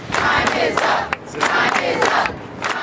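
A large crowd of Google employees shouts and chants together, protesting the company's handling of sexual harassment of women. The voices come in loud, overlapping bursts, rising and falling in a rough protest-chant rhythm, with no single speaker standing out.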